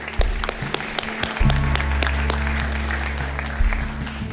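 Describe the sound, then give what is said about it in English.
An audience claps steadily, a dense wash of many hands with sharp crisp transients, joined by a sustained low hum of music or organ tone underneath throughout. “And the other thing, yeah, yeah, good clap, yeah.”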